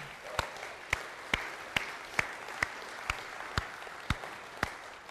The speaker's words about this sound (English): Yeah, we can clap.